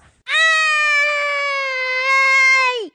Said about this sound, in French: Pendant que la bête hurle de douleur, il en profite pour s'enfuir.